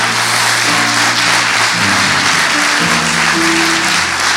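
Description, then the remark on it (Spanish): An audience applauds for the Lord, a dense, sustained wash of clapping over low sustained organ or keyboard tones that shift pitch underneath; no one speaks. “Vamos, vamos, va a aplaudir, hágalo para el Señor.”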